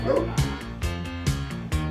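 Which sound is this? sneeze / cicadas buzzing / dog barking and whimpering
dog barking and whimpering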